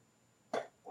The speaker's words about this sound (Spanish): Eso parece un perro. Sí, es un perro.